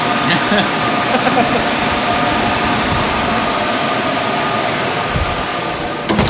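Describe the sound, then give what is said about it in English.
A loud, steady roar of the air conditioning system of a supercomputer cluster with more than a thousand CPUs, a constant whooshing hum with a faint tonal whine running through it, unchanging from start to finish. “This is a supercomputer. It's got its own air conditioning system and it's smarter than anybody within about five miles.”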